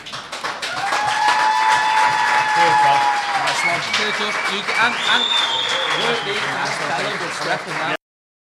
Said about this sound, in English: Put your hands together for …